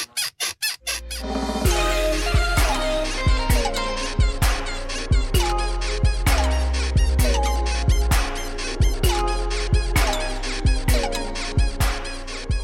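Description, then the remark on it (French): A squeaking bed sample repeats in a fast, bouncy rhythm over a heavy, pounding Jersey Club beat with deep bass, loud and up front; no one speaks. “un genre qui revient extrêmement fort en ce moment qui s'appelle le Jersey Club, euh, qui notamment utilise des bruits de lit qui grincent”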